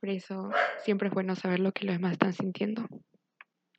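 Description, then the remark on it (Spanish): A dog named Emma barks in the background, partly buried beneath a woman talking steadily, with a faint short bark or two after she stops. “Perdón por el ladrido de Emma.”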